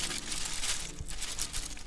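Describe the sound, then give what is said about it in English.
A plastic bag blowing across the grass crinkles and rustles steadily in the wind, with irregular crackly bursts over a constant airy hiss, fairly clear, with no voices. “That is the sound of the plastic bag the little boy had left blowing across the grass.”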